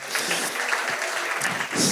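An audience applauds steadily for a group of men at a church service, a dense wash of many hands clapping at once, fairly loud and continuous with a slight swell near the end; no voices stand out.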